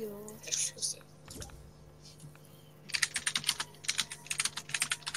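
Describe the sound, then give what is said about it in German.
Rapid typing by a PC gamer on a computer keyboard, crisp, with quick bursts of clacking keystrokes filling the second half after a quieter start where a faint voice murmurs in the background. “PC-Spieler, wie man hört.”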